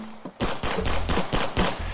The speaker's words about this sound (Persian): وقتی داشت از نوردمون اضطراری پایین میرفت صدای شلیک ها رو هر لحظه به خودش نزدیکتر احساس میکنه